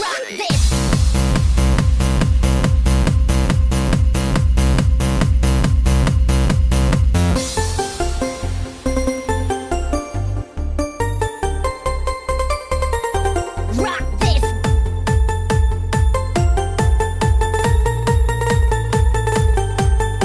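A steady self-produced electronic music track made and mixed in FL Studio, with a pulsing beat and synth tones, shifting into sparser sections and then building back into a full rhythmic groove, with no voices.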